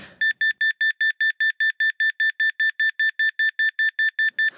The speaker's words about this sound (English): the alarm clock goes off.